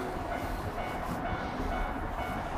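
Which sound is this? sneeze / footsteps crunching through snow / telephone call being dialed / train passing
train passing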